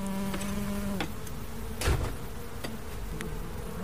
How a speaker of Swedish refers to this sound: Första kupan. Ganska litet bisamhälle. Lugna bin trots att de tycks sakna drottning.